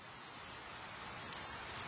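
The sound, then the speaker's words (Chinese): Steady, soft rain pours down on morning glory flowers in an even hiss with no voices, a couple of slightly sharper drop taps standing out near the end. “下雨了，雨点儿哗哗的打在喇叭花上，喇叭花开得更红更艳了。”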